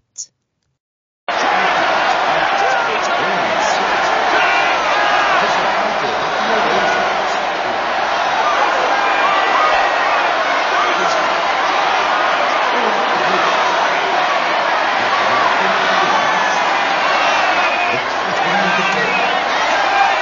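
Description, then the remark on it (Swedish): A large crowd in a clip from the film 1984, the Two Minutes Hate, yells and screams hatefully together in a loud, sustained, angry roar that starts abruptly after a brief near-silent moment and continues without pause to the end. “nöjda och tillfredsställda de är när de har fått skrika ut sitt hat i två minuter”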